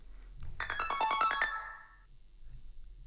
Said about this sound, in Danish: Hov, oh, jeg har ikke lige fået taget telefonen.